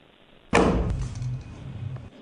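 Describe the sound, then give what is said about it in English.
A portable toilet door slams shut with one loud, rattling plastic bang, followed by a hollow lingering rumble and a faint click of the latch. No one speaks. “if you had, and nature was calling, and you walked into the porta potty door and you locked it”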